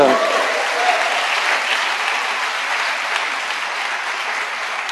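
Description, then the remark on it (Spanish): An audience breaks into sustained, dense applause to the Lord, a steady wash of many hands clapping at an even loudness for several seconds, with no distinct voices standing out. “De un aplauso al Señor.”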